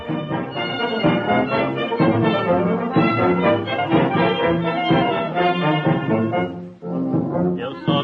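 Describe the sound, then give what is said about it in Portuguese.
An old 1930s Brazilian carnival song recording plays loud and continuous, a dense, brassy ensemble with a muffled, band-limited tone and a brief dip near the end before the music carries on. “Vamos dar uma vida aqui pra vocês sentirem o, o clima carnavalesco da época.”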